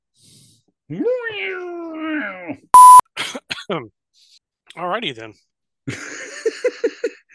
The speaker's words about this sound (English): cough, cough.